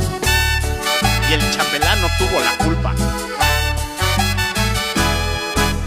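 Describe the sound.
A song with sung vocals plays loudly and steadily, driven by a regular thumping bass beat under a melodic lead voice and bright accompaniment, like music broadcast on the radio.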